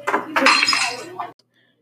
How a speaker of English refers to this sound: A glass object breaks in the black darkness.